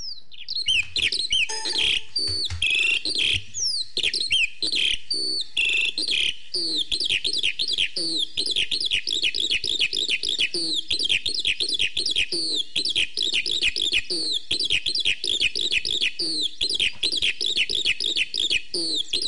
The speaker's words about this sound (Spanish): Esta semana hablaremos de la alondra. Primero vamos a escuchar el canto de esta ave y después comentaremos algunos datos sobre su morfología.